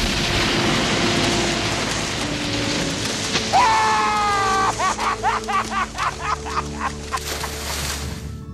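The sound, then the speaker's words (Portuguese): A harp plays a quick rippling arpeggio of plucked notes over a dense, rumbling orchestral wash, the notes rising in a steady run and then thinning out near the end. “Aos sons desse arpejo de harpa, o monstro partido ao meio, expelindo muito sangue, vai descendo para o fundo do mar.”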